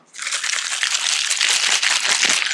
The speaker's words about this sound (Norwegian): Det er isklumper med vann i kjøleskapet.